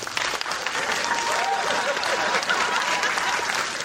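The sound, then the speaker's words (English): An audience breaks into a round of applause, a dense, steady patter of many hands clapping that holds at a fairly loud level for several seconds. “By round of applause, how many people have heard of the phrase curb appeal before?”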